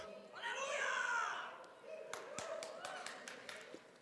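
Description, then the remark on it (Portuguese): A few voices call out at first, then a scattered round of hand clapping follows, a dozen or so sharp claps at an uneven pace, given as a round of applause for Jesus. “Dá uma salva de palmas aí para Jesus.”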